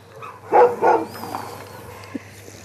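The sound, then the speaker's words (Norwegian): Two loud dog barks in quick succession, followed by quieter rustling and a faint short yip against a low steady hum. “Vi skal få lov å henge rundt i hennes värld en stund. Bland hundene,”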